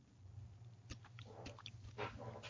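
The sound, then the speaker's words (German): A male cat purrs in a steady, low, continuous rumble, fairly quiet, with a few soft clicks and rustles on top and no talking. “Hast du ihn schnurren gehört?”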